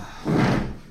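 A chair is dragged briefly across the floor into place, a single fairly loud scrape with a low rumble that lasts under a second before settling.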